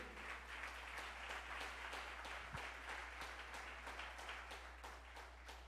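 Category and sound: crowd, church audience applauding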